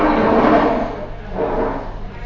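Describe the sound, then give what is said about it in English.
A woman cleaning and tidying drags and shuffles chairs back into place, two scraping, rumbling bursts of furniture moving across a floor, fairly loud, with no voices. “It's the woman cleaning and tidying oh, up, so she's putting all the chairs back where they belong.”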